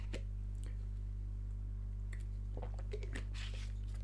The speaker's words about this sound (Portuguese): Primeiro vou beber água.